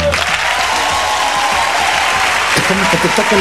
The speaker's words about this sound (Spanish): Fuerte el aplauso para ustedes,